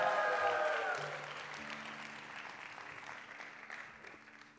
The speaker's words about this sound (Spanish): Alguien que lo crea, que le dé un aplauso fuerte. Alguien que lo crea, que le dé un grito de victoria al Señor.